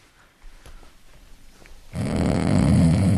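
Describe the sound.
After a quiet, faintly clicking start, a person makes a loud, sustained snoring sound with their voice, a harsh rattling rasp that fills the last second and a half.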